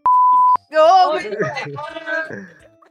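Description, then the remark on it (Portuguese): A loud, steady censor bleep sounds once for about half a second, a flat pure tone cut off abruptly, covering a child's name, then a person starts talking right after it. “Não, eu tenho, eu tenho um arquivo de bips aqui.”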